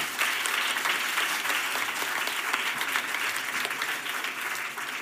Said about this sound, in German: Bitte einen Applaus für unsere Diskutantin.